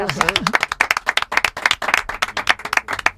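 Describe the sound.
An audience claps steadily for a few seconds, a dense patter of many hands, while a voice briefly speaks over the start of the applause.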